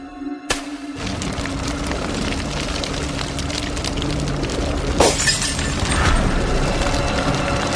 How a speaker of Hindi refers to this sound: बाहर बरामदे का बल्ब जोर से फटा दोनों ने सोचा कि जब सब जल जाए तो कांच के टुकड़े साफ कर देंगे